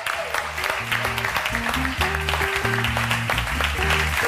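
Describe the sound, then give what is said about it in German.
An audience claps steadily, a dense crackle of many hands lasting the whole stretch at an even, fairly loud level, with a low stepping musical line playing underneath, welcoming the next guest, who has written a book, onto a show. “Begrüßen Sie mit einem krachenden Applaus meinen guten alten Freund”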